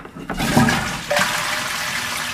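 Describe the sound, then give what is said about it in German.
A toilet flushes, a loud rushing surge of water that swells in two bursts and then settles into a steady draining hiss. “Gerade bei intimen Verrichtungen.”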